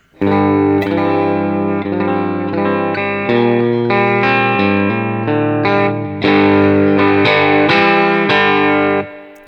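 An electric guitar plays its basic tone, chords and single notes through an amp, with a touch of reverb and slight crunchy breakup on harder strums; played alone and fairly loud, no talking.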